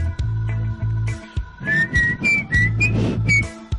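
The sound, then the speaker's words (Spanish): The Old Spice advertising jingle is whistled clearly, several bright sliding notes rising and falling in a quick melody over a low buzzing background. “Pero bueno, les dejo de tarea esa tonadita.”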